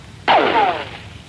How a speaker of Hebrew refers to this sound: הנה, זה היה אפילו די קרוב, הייתי אומר. ככה, הרעמים שאתם שומעים הם שניים. האחד, חילופי אש של הטנקים שלנו עם טנקי אויב, והארטילריה שלנו הסוגרת על האויב ולא מאפשרת לו לברוח.